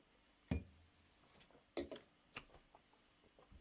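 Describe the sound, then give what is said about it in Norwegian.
A few sharp, bright clinks of glass ring out, spaced irregularly over a few seconds, as glasses are tapped together in a toast, with no talking. “tilbake om ei uke, og vi skåler for det. Alt skal ned.”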